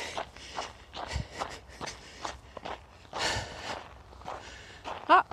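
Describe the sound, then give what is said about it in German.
Steady jogging footsteps crunch along a loose outdoor forest path, evenly paced, with heavy breathing mixed in and a brief sharp sound near the end. “Also jetzt macht es gerade Spass zum Joggerlen.”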